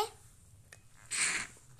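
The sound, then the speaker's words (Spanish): A single short, airy slurp of mate being sucked through a metal straw by a father, a hissy gurgle lasting about half a second, against a quiet background. “Ese fue el ruido de papi tomando mate.”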